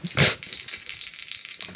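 A die, thoroughly examined beforehand by the supervising official, rattles and clatters across a hard surface, starting with a sharp burst and then a rapid, bright string of small clicks that continue steadily before stopping. No one speaks.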